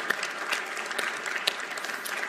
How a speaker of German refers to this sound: Heißt sie mal ganz herzlich willkommen mit einem Applaus.